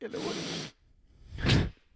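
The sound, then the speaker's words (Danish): A short, loud hiss of deodorant spray bursting from a can, followed by a brief breathy whoosh, with a voice speaking briefly. “Det her, det er lyden af en deodorant.”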